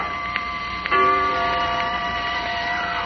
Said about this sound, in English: Suddenly, the hall clock began to strike.